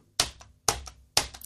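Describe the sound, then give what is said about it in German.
Three crisp keyboard keystrokes typing the letters A, U and S to spell the word 'aus', evenly spaced about half a second apart, each a sharp click with a quick softer rebound, as if slowly typing a short word. “Okay, was schreibe ich jetzt?”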